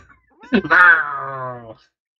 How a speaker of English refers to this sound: my cat's just in here sneezing on me. Hey, kitty.